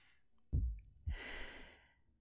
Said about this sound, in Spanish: Ahora cierro los ojos. Debo calmar mi mente. Empiezo a meditar. Voy respirando cada vez más profundo con el fin de que mi ritmo cardíaco baje.